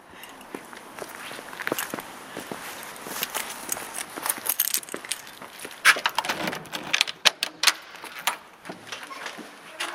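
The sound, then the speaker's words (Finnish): Footsteps walk steadily across a hard floor as someone walks into a building, a series of irregular taps and scuffs with a few sharper knocks, heard alone without any talking. “No, saaks mennä sisään? No totta kai, ole hyvä, astutaan peremmälle.”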